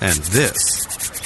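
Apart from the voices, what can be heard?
skin being scratched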